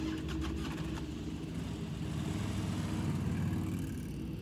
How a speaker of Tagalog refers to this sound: Kaya pinaandar ko na rin ang motor ko at sinundan ko siya.